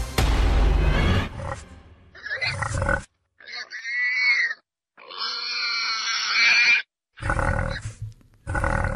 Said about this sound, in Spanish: A ver, ya, ya para estas, ya para estas alturas, este, tendrían que reconocer el sonido de este animal, porque van varios, van varios de estos que, que ponemos aquí en historias sonoras. Es un jabalí.